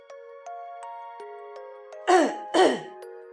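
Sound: coughing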